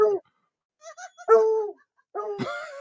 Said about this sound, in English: Hey, that's my hound dog. That's my hound dog. It sounds like a young lady. Oh, that's a, oh, that is a dog.